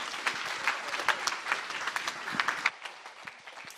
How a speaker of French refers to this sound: Excellent. On peut l'applaudir.